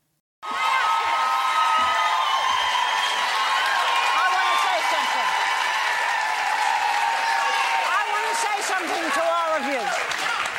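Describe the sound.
The studio audience of The View bursts into loud, continuous applause mixed with cheers and shouting voices, starting abruptly and holding steady for about ten seconds.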